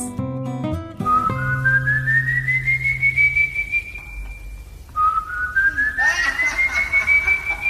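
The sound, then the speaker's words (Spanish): Two long, loud whistles, each sliding slowly upward in pitch and holding at the top, the second following a brief pause after the first, over a faint background rumble. “Pero aquellos silbidos se repiten insistentemente”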